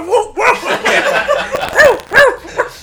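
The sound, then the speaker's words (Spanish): A human voice mimics a dog on a skateboard barking, a quick run of yappy woofs ending in two louder, sharper barks, loud and lively with no other sounds around it. “el vato, ¡guau! ¡Guau!”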